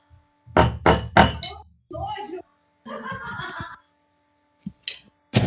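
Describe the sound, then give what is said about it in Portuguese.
Three firm knocks on a door in quick, even succession, loud, followed by brief indistinct voices and a few scattered thuds. “Vocês ouvem o barulho na porta.”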